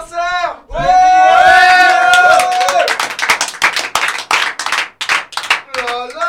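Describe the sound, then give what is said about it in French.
A small group of people who had just sung a song shouting and cheering, with loud, rapid clapping joining in and continuing as the yells die down into scattered whoops. “Et donc là, globalement, là, tous ceux qui, qui gueulent, c'est ceux qui, ont chanté la chanson avant”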